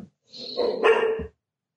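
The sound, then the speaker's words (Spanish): A nervous female dog lets out a drawn-out, whining bark that rises into a louder yelp before cutting off, with no one speaking over it. “Perdón que tengo compañía aquí. ¿Quién es? ¿Qué, dice? ¿Qué dice? no sé, ¿no? sé. La perra que se ha puesto nerviosa.”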